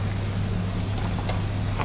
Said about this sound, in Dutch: Um, ik doe de afzuiger even aan.